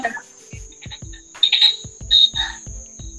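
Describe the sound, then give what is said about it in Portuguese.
Cicadas buzz in a steady, high-pitched drone, swelling into louder shrill bursts every second or so, with soft low thumps repeating underneath and no one talking. “Barulho é das cigarras.”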